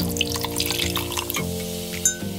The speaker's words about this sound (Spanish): Con trago en mano y sonando copas